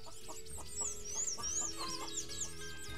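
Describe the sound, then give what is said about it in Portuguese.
A hen clucks in short, repeated bursts at a steady pulse early in the morning as it is being tended, with high chirping birds layered above and a low constant hum underneath; no one speaks. “Era bem cedinho ainda quando Zefa começou a tratar a galinha.”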